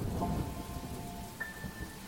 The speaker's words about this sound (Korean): 나에게 돌아오는 대답은 먼 곳에 울리는 천둥 소리뿐이었어.